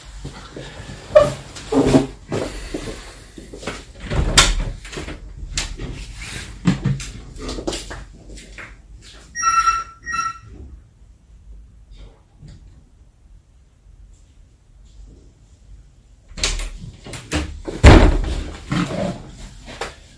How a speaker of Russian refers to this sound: Извините, надо дверь открыть. остался один дома и забыл открыть дверь.